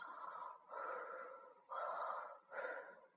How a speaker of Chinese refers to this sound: 小青蛙打着呼噜说：“ 兔子叔叔，谢谢你。”